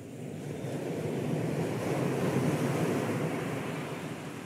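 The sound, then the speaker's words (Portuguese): Sea waves break steadily on the shore, a broad rushing wash that swells and recedes over a few seconds, fairly loud, with some wind in the background and no voices. “grande parte desses rios do Pampa, eles correm pelo estado e vão parar na minha casa, no litoral, onde se encontram com o mar.”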